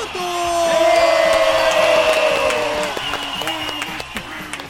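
Audience applause with cheering and whoops, a dense wash of clapping with loud sustained yells rising over it early, then fading into scattered claps toward the end.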